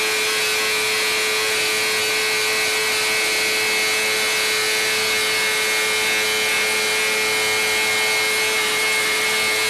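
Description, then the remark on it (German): A Wankel rotary engine runs steadily at high revs on a test bench, giving a loud, continuous buzzing whine with a strong humming tone and no change in pitch throughout. No one speaks. “Das ist ein Wankel.”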